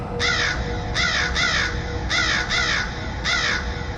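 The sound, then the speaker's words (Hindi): Crows caw repeatedly in harsh, rasping bursts, several calls in quick pairs and triplets, loud over a steady low background rumble, with no voices, in a village in the morning. “अगली सुबह गांव में जो भयानक नजारा था वो देखकर सभी लोगों के हाथ पैर कांप चुके थे क्योंकि गांव की सड़कों पर हर तरफ खून और उन राहगीरों के शरीर के टुकड़े हर तरफ फैले हुए थे जिन्हें कौए और गिद्ध नोच नोच कर खा रहे थे”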